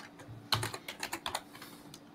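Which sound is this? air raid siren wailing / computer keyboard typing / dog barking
computer keyboard typing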